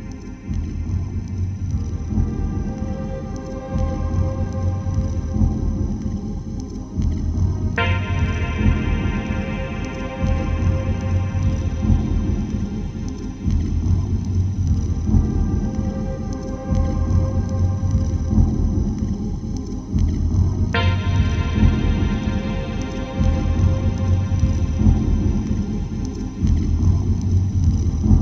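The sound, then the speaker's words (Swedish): Dense ambient electronic music with drums, a deep, rumbling low end and a steady rhythmic pulse, layered with droning tones that brighten as new melodic textures enter partway through. No voices. “här hör vi att det är lite mer rytmer och eh, eh, melodi kanske till, men eh, mer eh, trummor och puls.”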